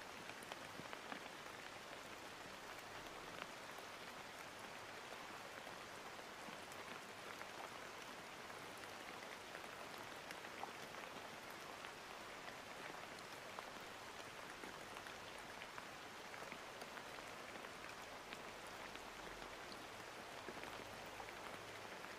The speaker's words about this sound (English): Listen to the sound of rain falling and feel your breath rhythmically expressed in the lowest part of your tummy or pelvis.